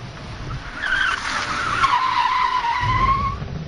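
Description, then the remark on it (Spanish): A car skids and spins with a long, loud tire squeal that sweeps and wavers in pitch for several seconds, over a rough rumble of engine and road noise. “Cuando están a punto de cruzar el paso a nivel y ella acelera para poder cruzar cuando baja un poco el mar un torrente de peces y olas les hacen girar el coche”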